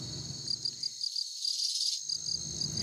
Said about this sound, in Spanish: Los insectos estamos presentes en todos los niveles y ecosistemas del Amazonas constituimos más del 90% de sus especies.